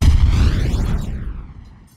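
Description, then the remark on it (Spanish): Dusty walls collapse in war in a heavy, deep rumbling crash, loud at first, then slowly fading away over a couple of seconds with a hollow, sweeping whoosh. “Los sonidos de la guerra es la caída de las paredes polvorosas.”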